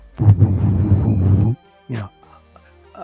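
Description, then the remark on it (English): A voice imitates a low, rumbling hum with a pulsing beat, held for over a second, followed by a brief vocal sound after a short pause. “was a humming sound, but it had kind of a, a rumbling beat to it.”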